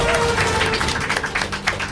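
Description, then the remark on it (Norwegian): A burst of hands clapping fills the whole stretch, dense, steady applause from a small group for an Overwatch game, with some faint background murmur underneath. “Altså, det, det er, det er applausverdig. Applaus.”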